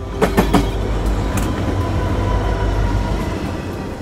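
A train rumbles along steadily with a deep, continuous low drone, a few sharp metallic clacks early on as the wheels pass over the rails, and no voices.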